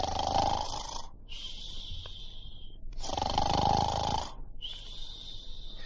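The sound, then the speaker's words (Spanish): The wolf from the Little Red Riding Hood tale snoring while asleep outside: two slow cycles of a loud, rumbling, rasping inhale followed by a long, hissing, whistly exhale that trails off, with no talking. “Luego salió fuera y se echó a dormir.”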